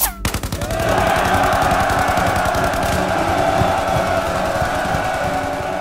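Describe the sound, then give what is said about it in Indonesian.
Sustained rapid automatic gunfire rattles loudly for several seconds around a building in Indonesia where Indonesian figures are held hostage during negotiations with British forces, dense bursts overlapping with a rough, noisy background like commotion. “Di dalam gedung, tokoh-tokoh Indonesia yang menjadi anggota biro menjadi sandra ketika terdengar suara tembakan.”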